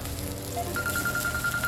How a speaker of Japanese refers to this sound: あ電話かかってきちゃった